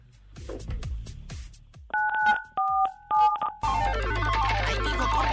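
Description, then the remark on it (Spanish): A few quick, clear telephone keypad beeps, dual-tone dialing pressed in a short run, follow some soft taps and give way to a dense, noisy burst of sound. “Presiona tu teléfono 977”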